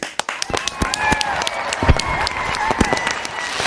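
A short burst of applause from a small group celebrating the release of a band's third EP: rapid sharp claps overlapping unevenly at a steady loudness, with a faint voice or whistle-like tone threading underneath.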